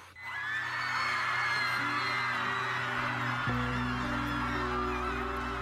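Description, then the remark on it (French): Thousands of people in Argentina cheer and shout in sustained, loud jubilation after the vote legalizing abortion, countless voices whooping and screaming together with a low rumbling hum running steadily underneath. “Ces cris que l'on vient d'entendre, ce sont des milliers de personnes en Argentine qui viennent de voter la légalisation de l'interruption volontaire de grossesse.”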